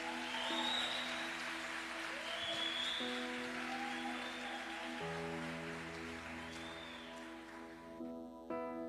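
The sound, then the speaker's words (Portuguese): An audience applauds God in the name of Jesus with dense, steady clapping that fills the whole stretch, while sustained keyboard chords play underneath and a few faint rising whistle-like cries cut through. “você recebe, aplauda Ele aí em nome de Jesus.”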